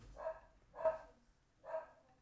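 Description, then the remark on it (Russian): A dog barks off camera at the speaker's home, three times in separate, evenly spaced bursts, moderately loud, with no one talking over it. “это лай за кадром.”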